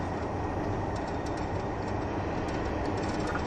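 A steady, loud rumble of a KiHa 71 series diesel train, the Yufuin no Mori limited express, running on rails between Yufuin and Beppu, Japan, with a dense low roar and faint scattered clicks from the wheels, continuous throughout with no voices.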